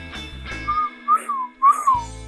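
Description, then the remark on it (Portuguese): A person whistles an imitation of a bird: three short, bright chirping phrases, each rising and falling in pitch, over a low background hum with faint music. “E esse aí foi minha tentativa de imitar um passarinho em homenagem ao Maracanã Guaçu e ao Canarinho Pistola mas eu não sei assoviar, então ficou assim mesmo.”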